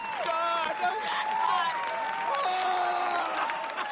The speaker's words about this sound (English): the chant started getting louder and louder, and before you knew it, the, the audience had erupted into cheers of joy